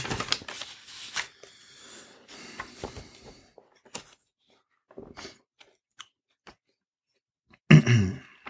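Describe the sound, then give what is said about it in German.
Paper handling: a paper slip being put in rustles and crinkles in several short bursts with quiet pauses between, ending in a louder, brisk shuffle. No voices. “Wir legen das Zettel rein.”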